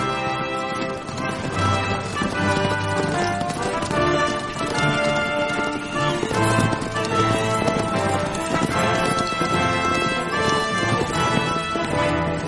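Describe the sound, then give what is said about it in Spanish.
Horses' hooves clip-clop in a steady, brisk rhythm as a princess's retinue rides away on horseback, blended with a dense musical backdrop that stays fairly loud throughout without fading. “y todos sus équitos se marchan a caballo con la princesa.”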